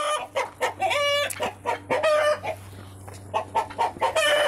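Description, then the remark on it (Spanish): Several chickens, someone's own hens and roosters being raised, cluck in a busy, overlapping chorus of short, repeated calls, with a few higher squawks and a steady low hum running underneath throughout. “Ah, a los pollos.”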